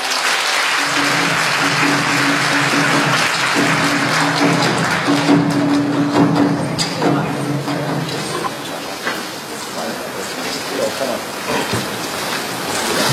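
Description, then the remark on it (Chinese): A large audience claps steadily in a dense, continuous wash of applause welcoming Fudan University's President Yang to give a speech, fading slightly toward the end, with faint tonal music or hum running underneath through the first half. “那么接下来就有请用我们热用我们热烈的掌声欢迎杨校长为我们演讲，掌声欢迎！”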